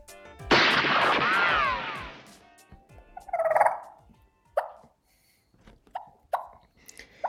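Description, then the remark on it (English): A live wild turkey hen feeding through the timber gives a long, rolling purr, then a series of sharp, spaced-out clucks, fairly loud against a quiet background with no talking. “And here y'all can hear that We've got a live hen purring clucking.”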